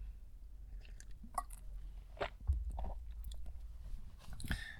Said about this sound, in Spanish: Pausa para trago de café.